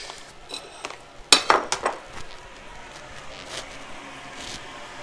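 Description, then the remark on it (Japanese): A quick cluster of sharp metallic clinks of cutlery tapping against a plate during lunch, lasting about a second before settling into a quiet hum. “昼食べながら雑談”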